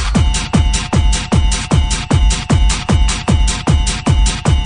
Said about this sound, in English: Rhythm and drums in a booming track.